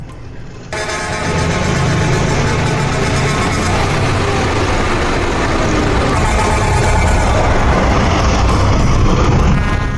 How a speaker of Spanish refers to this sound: la número 38 le vamos a dar la bienvenida con el bocinazo, de, lujo.